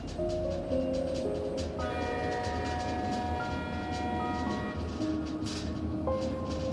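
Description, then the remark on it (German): A steam locomotive's whistle sounds in sustained, shifting chord-like blasts over a steady heavy rumble as the locomotive slowly starts moving, loud, with no one speaking. “Nachdem du Platz genommen hast, dauert es gar nicht lange und du hörst wieder das Tuten der Dampflok, während sie sich langsam in Bewegung setzt.”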